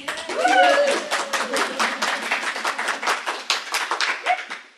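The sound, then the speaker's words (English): A live audience at the Friends General Conference gathering in Toledo claps for several seconds, a dense, steady patter of many hands, with a few cheers and voices rising at the start before the clapping tapers off. “We've got an audience here. Could you make a little noise, people out there?”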